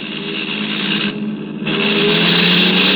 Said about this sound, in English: Oh, maybe he's signaling he wants to pass. i let him. Oh, that's it. He, he's blowing his horn.